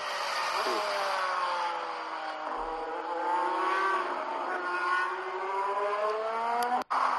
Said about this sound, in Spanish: Bueno, pues ahí lo tenéis. Ese es el sonido del alpino, o sea que sí que ha salido a rodar en el Filming Day.